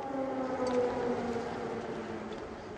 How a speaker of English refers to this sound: just as Biden and Zelensky were stepping out of St. Michael's Cathedral, air raid sirens rang out